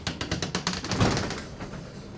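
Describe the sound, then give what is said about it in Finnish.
A garage door rattles in a quick series of metallic clatters on a snowy day, building to a louder bang about halfway through before fading into a dull rumble. No voices. “Taas toi autotallin ovi.”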